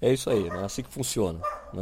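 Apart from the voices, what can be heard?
dog barking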